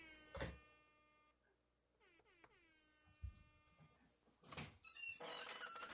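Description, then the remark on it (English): A voice imitates a door creaking open: drawn-out, squeaky tones that bend and slide in pitch, with a few thumps and bursts of noise before and after. “Oh wait, let's do a door opening sound right now.”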